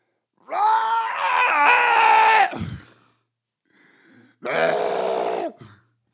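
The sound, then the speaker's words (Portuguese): A voice imitates the Portuguese sound of retching and vomiting in two long, strained bursts, the first about two seconds of harsh, tonal gagging that cuts off abruptly, followed by a brief pause and a second, shorter heave. “yeah, da língua portuguesa, porque os, os belgas não vomitam assim mas pá, o barulho de.”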